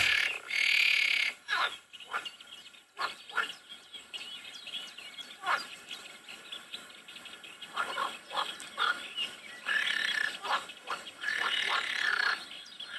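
Green frogs, calling with external vocal sacs, croak in a loud, rattling chorus, bursts of harsh calls repeating irregularly over thirteen seconds, strong against a quiet outdoor background with no talking.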